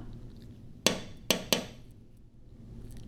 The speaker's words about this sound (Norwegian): Pappa Panov knakket på ruta